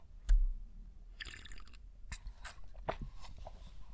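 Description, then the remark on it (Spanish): Quiet sipping of coffee: a short slurp and a swallow, scattered with small wet clicks and mouth noises, without any talking. “Pausa para trago de café.”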